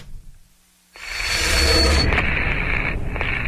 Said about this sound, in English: If you are just tuning in, we are going to breaking news out of Washington. Again, this is a developing story. There has been an explosion.